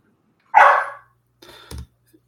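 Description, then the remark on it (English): A dog in the background lets out one loud, sharp bark, then a shorter, softer second bark with a dull thump, with no one talking. “Um, and also, sorry, my dog is barking here in the background.”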